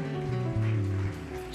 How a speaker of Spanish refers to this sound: De antemano, ¿por qué no le das un aplauso de agradecimiento? Porque Él ha contestado tu oración.